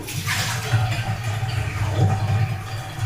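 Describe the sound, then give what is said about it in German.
Water pours out steadily in a continuous splashing, gurgling stream, with a low rumbling flow underneath and brighter hiss above, lasting the whole few seconds without pause. “Das Water ausleeren.”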